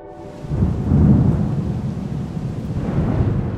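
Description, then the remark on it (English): A deep, rolling rumble of thunder swells and lingers over a steady wash of rain on a very stormy night at the end of October, the low roar sustained throughout with no voices present. “So, end of October, a few weeks after she passed on, it was a very stormy night.”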